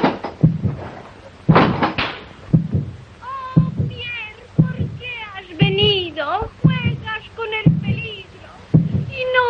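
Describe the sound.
A loud, amplified heartbeat thumps steadily about once a second, deep and booming, while voices and tonal vocal sounds rise and fall over it.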